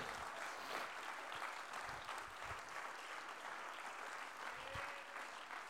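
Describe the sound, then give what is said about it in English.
An audience claps their hands in a dense, steady wash of applause lasting several seconds, broad and sustained at an even, moderate loudness, with no voices standing out. “Oh, clap your hands unto the Lord today.”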